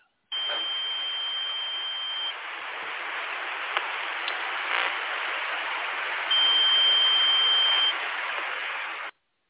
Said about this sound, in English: And then if you go into number 13, this is 13. the tone that extends longer. Yeah. Let me go to 13, going to 13. Uh, sound like Spock on the Enterprise.